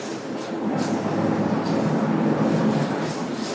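A steady, loud rumble of a metro train in motion, with a dense low roar and faint rattling running continuously throughout, enveloping, with no talking.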